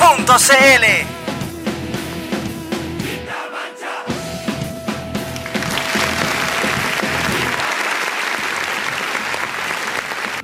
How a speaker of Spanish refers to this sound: Oye, hace rato que no empezábamos con aplauso.